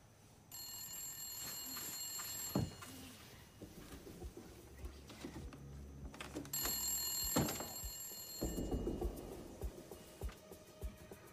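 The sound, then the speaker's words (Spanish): A telephone bell rings at night on 24 June 1974 in two long, loud bursts with a pause between them, its bright trilling ring with faint rustling and low background noise underneath. “Mientras se apresuró hacia el teléfono y la grabadora, esperaba al fin obtener algunas respuestas.”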